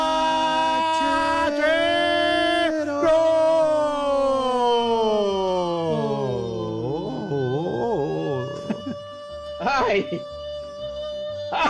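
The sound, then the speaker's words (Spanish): A voice imitates an ambulance siren, a loud wailing tone that holds high and then slides downward into a wavering, warbling whoop before trailing off. “¡Ahí viene la ambulancia!”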